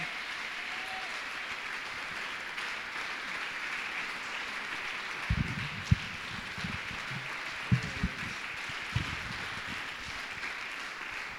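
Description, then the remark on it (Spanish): An audience applauds in praise of the Lord during a church service, a dense, steady wash of clapping that carries through the whole stretch, with a few sharper, louder claps standing out in the latter half. “Le damos ese aplauso.”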